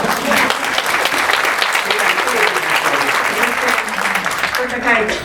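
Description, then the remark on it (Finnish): Sustained applause from a group, a dense, steady wash of many hands clapping at an even loudness for about five seconds, with faint voices mixed in underneath. “Eli ne miehet, jotka täällä on jo valmiiksi niin kun tulee mukaan, niin jep, te olette uuden tyypin miehiä, vaan siitä melkein aplodien ansaisia.”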